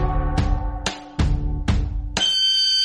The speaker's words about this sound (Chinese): 那是什么啊？好像是狗笛子，它想叫什么来啊？